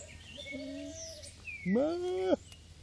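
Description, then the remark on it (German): A single short bleat from a lamb rings out, loud and slightly quavering, while faint birds chirp in the background before and after; the lamb is among sheep on the meadows along the Rhine in Cologne, Germany. “Äh, und so hier ist wieder so ein Lämmchen oh, vor vorne.”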